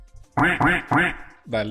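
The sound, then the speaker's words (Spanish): A person imitates a duck, giving three quick nasal quacks in a row followed by a shorter, lower fourth quack, loud with no other sounds around. “Así que increíble, para que le tiro el eh, pato y ahí la haces.”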